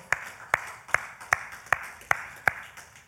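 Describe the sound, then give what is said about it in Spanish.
Applause at a worship service in praise of God, in the form of steady rhythmic clapping: seven sharp, bright claps at an even beat of roughly two and a half per second, with no voices over them. “Aleluya, dale un fuerte aplauso.”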